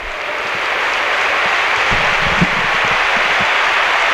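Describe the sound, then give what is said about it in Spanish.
A stadium crowd, put at about 45,000 by the club, applauds steadily throughout, a dense even wash of clapping with little cheering, while a few dull low thumps pop out now and then beneath it. “Más aplausos que vítores, pero sí, todo el mundo.”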